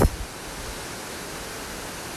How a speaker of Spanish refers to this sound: Y este sonido es el sonido para alinearse y sintonizarse con la prosperidad y la abundancia. Esta cascada emana la energía de la fluidez